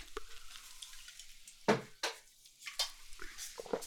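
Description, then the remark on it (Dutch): Someone takes a last sip from a can: a few short, wet slurping and gulping sounds with small clicks, fairly quiet, spaced over a few seconds with no talking. “Ik heb nog een slokje overgelaten. Kan ik het laatste slokje nemen en daarna het blikje kraken?”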